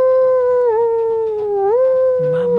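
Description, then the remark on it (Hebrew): A long, steady howl holds one mid-high pitch for nearly three seconds, wavering with two brief downward dips before settling back. It is loud and unbroken, with no talking over it. “מה אתה מיילל?”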